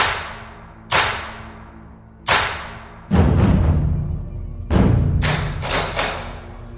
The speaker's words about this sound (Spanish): Convencido, el gran inmortal pidió que azotaran al rey mono con treinta latigazos como frutas había en el árbol.